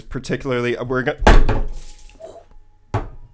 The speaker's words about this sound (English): All right, so what you just heard was me spilling my entire pint of beer all over myself.